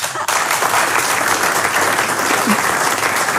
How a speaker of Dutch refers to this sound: Een groot applaus voor jullie.